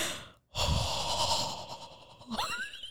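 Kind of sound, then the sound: vocal imitation, imitated heavy breathing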